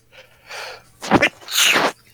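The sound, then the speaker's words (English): A single loud sneeze: a breathy intake, a sharp explosive burst, then a hissing rush of air trailing off. No talking. “Bless you.”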